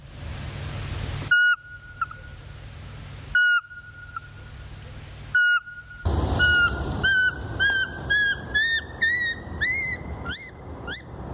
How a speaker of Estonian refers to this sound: ja kuulame korra, mis häält see pisike kakuline teha oskab